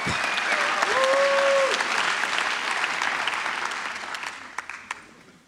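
A crowd applauds steadily for several seconds, dense clapping that gradually thins out, with a few louder scattered claps at the end and faint whistles or cheers early on.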